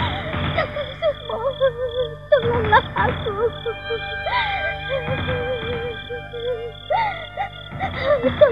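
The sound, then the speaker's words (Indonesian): A woman cries and sobs, her voice wavering and rising in strained, drawn-out wails broken by gasping breaths, continuing steadily throughout. “Aku mendengar tangisan seseorang. Jeritan seorang perempuan.”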